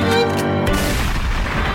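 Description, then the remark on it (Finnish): A loud gunshot sound effect cracks out over a sustained musical tone, one sharp blast followed by a rumbling, noisy tail that fills the rest of the moment. “Välillä ampuen.”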